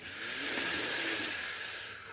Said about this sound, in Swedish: Och ni där hemma som lyssnar också, vi kan bara ta några lugna andetag. Mm. Liksom. Mm, andas in.